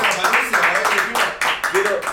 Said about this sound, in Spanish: Igual un aplauso para Panuncio.